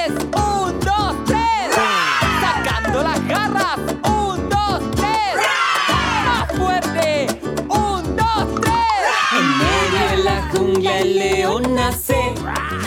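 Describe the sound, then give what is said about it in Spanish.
A group of children roar together on cue after a count of three, imitating a lion for the best roar, in loud, sustained shouted waves that rise and fall, with brief dips between bursts and many overlapping voices throughout. “¡Atención niños ¡El mejor rugido!”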